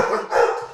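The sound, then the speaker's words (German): Dogs bark at the ringing of a doorbell in a quick, continuous, loud burst, with overlapping yaps filling the whole short moment and no one talking. “Oh, anscheinend ist hier äh, geklingelt worden und die Hunde merken, dass ich nicht reagiere und mir das ansagen.”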